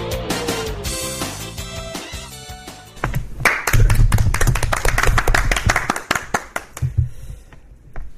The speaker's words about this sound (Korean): 우리 박수는 왜 치는 거죠? 뻘쭘해서. 뻘쭘해서. 네. 아니 지 우리 스스로 좀 치얼업 하는 것도 있고 자축하는 의미에서.